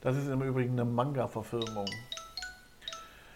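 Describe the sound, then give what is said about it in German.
A mobile phone notification chime plays a quick series of bright, ringing tones, starting as someone finishes speaking and then sounding on its own, clear. “So, das war mein Handy, einfach ignorieren.”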